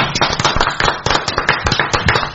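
Loud, sustained audience applause: dense, overlapping claps forming a steady crackling roar with sharper bursts throughout, and no voices.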